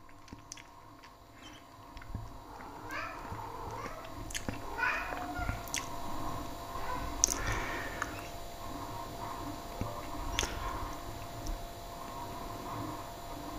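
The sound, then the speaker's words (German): Cats fighting, with drawn-out wavering yowls and several sharp, sudden hissing bursts rising over a steady noisy background. “wenn zwei Katzen sich zum Beispiel überhaupt nicht leiden können”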